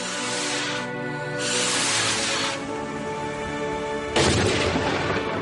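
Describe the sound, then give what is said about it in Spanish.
Fireworks shells go off one after another in a chain reaction, each cartridge ignited by the blast wave of the one before, in rolling, hissing bursts, with a sharper, louder blast near the end over a steady droning background. “Cada cartucho se prenderá con la detonación de la onda expansiva precedente.”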